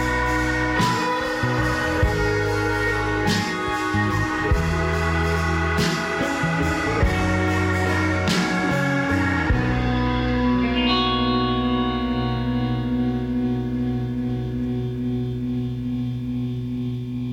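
Pop music with a prominent, melodic bass line under reverb-heavy instruments. A steady beat drives the first half, then the drums drop away, leaving sustained chords and bass ringing to the end.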